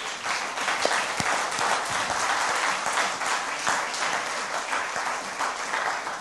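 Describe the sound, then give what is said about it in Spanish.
A standing audience at a church service breaks into sustained applause for God, many hands clapping in a dense, steady wash of noise that holds at an even loudness for several seconds, with no voices standing out. “Dele un aplauso gigante a Dios también.”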